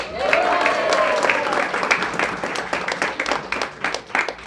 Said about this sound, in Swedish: Och med ett jubel som lyfter taket hälsar vi vår första deltagare välkommen upp på scenen